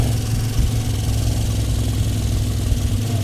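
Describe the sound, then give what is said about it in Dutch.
A long procession of motorcycles on the Elephant Motor Run 2016, riding on the public road, rumble together in a steady, continuous drone, fairly loud, with a low idling throb and no voices. “En ja, met zo'n lange stoet motoren trek je wel de aandacht.”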